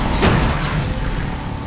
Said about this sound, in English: Oh my god! my car's been smashed to shit